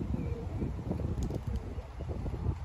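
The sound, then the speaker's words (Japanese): Many pigeons coo softly in a low, murmuring chorus in Saudi Arabia, repeated throaty calls blending together outdoors under steady wind and ambient rumble, with no clear voices. “めっちゃハトおる日本みたいですね”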